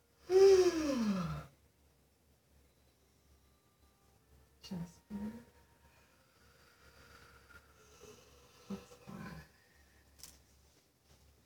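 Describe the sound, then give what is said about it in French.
A loud, voiced sigh opens, followed by softer, slow breaths in and out at a steady, unhurried pace during a five-minute breathing exercise, in an otherwise quiet space. “On respire ensemble pendant 5 minutes?”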